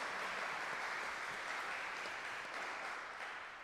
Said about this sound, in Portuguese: Vamos saudar Nossa Senhora numa bonita salva de palmas.